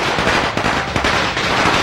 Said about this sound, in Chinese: 哇！整个村子回荡的巨大的鞭炮声，噼里啪啦噼里啪啦噼里啪啦